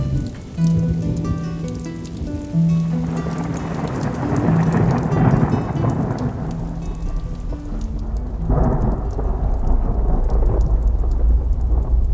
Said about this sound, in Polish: No świetnie, będzie padać to długo teraz idzie od powietrza, niech pani zobaczy. Tu bezpiecznie jest. Są specjalne piorunochrony. Ale burza nam się rozpętała.